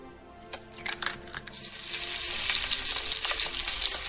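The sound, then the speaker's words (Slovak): Breakfast being cooked in the morning, sizzling in a frying pan: a few quick clatters at first, then a steady, crackling hiss that swells and holds, with no voices. “A páči sa mi, že si vstal skôr, aby si si urobil dnes ráno raňajky, nahral mi ten zvuk.”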